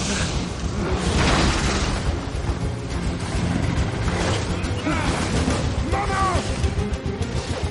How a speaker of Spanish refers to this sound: Los dos se protegen detrás de una columna cuando una serpiente lanza fuego por la boca.